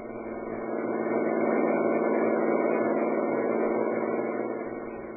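A steady, muffled engine drone from a car in motion, swelling slightly louder in the middle before easing back, with no voices over it.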